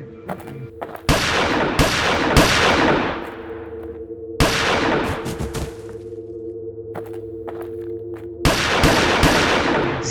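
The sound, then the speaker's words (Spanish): A series of seven loud 9 mm gunshots, sharp bangs at irregular intervals, each trailing off in a reverberant tail over a steady low hum. “Entonces, entonces le sacó y le fuimos eh, llevando y en eso lo asesinamos de siete disparos.”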